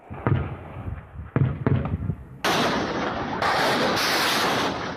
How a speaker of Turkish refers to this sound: Gece boyu top atışları devam etti.